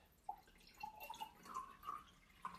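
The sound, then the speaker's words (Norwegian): Water pours from a carafe into a glass in a few bubbly glugs, the pitch creeping upward as the glass fills, with no voices over it. “Vil du ha litt mer vann? Å, takk. så fin i karaffen din var òg.”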